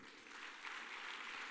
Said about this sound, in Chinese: 啊，给各位一个掌声。